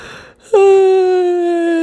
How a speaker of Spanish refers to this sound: Ay, güey, no manches, este capítulo se va a llamar Mil Maneras de Bostezar.